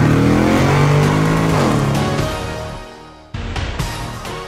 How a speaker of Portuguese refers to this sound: engata a primeira e acelera!